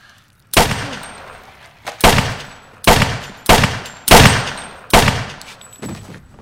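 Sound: gunshots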